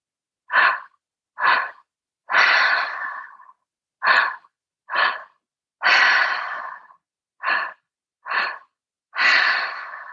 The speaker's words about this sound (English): And then just returning back to the breath.